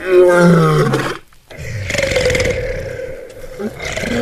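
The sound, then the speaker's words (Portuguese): A loud roar from an escaped lion bursts out, a deep rumbling growl that pauses briefly then rolls on in a long, grinding second roar. “O leão escapou!”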